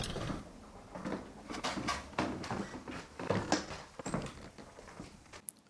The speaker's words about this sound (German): Aha, eine Tür. Uff, ist das hell.